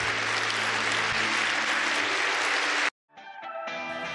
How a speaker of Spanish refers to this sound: ¿Puede decir amén? Dale un aplauso a Él entonces.